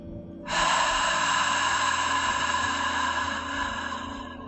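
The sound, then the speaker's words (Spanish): During a guided breathing practice, a long, deep breath is drawn in and slowly let out through the mouth, airy, lasting several seconds over a soft, steady tonal hum in the background. “Una vez más, inhala profundo y suelto el aire por la boca.”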